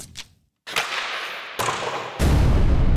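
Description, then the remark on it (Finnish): A brief, punchy jingle made of sound effects: a quick whoosh and thud after a short silence, then sharp hits building into a loud, sustained rushing burst at the end. “mitä sanot, jos otetaan tästä nopea, nopea jinkku”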